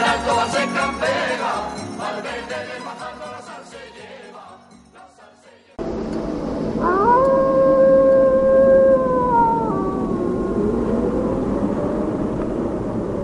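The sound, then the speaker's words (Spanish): After a stretch of music cuts off, wolves let out a long, clear howl that rises, holds steady, then slowly slides downward, over a soft background hiss. “La gente que habla mal de los lobos es porque no los conoce.”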